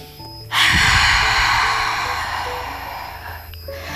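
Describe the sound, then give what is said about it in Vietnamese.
A deliberate breathing exercise, inhaling through the nose and exhaling through the mouth: one long, loud, airy breath starting abruptly and sustained for about three seconds before tapering off, with no talking. “còn nếu như mà mình thấy mình cảm thấy thở nó nông quá nó khó quá vậy thì mình có thể là thở bằng miệng cũng được ví dụ như mình hít vào bằng mũi và thở ra bằng miệng”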